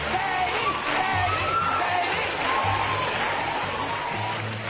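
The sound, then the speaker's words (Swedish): A dense, loud studio audience roar on Oprah's talk show in 2005, many voices yelling and cheering at once, screaming Katie Holmes' name, with scattered higher shouts cutting through, sustained without a break. “Medan publiken och Oprah skriker hennes namn rusar Tom ut i kulisserna för att hämta henne.”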